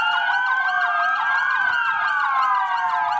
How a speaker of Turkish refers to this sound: Isparta'da İl Emniyet Müdürlüğü ve itfaiye ekipleri sağlık çalışanlarına ve koronavirüs nedeniyle hastanede bulunanlara siren çalarak destek verdi.